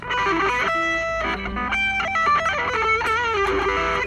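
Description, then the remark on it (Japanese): A loud distorted electric guitar plays a continuous, shifting phrase of sustained notes and bends over an E minor chord as practice, with no voices present. “練習してる時はまあ曲に合わせてそこの曲のキーとかコードを拾ってそこにコードですねそれは e マイナーのコードで”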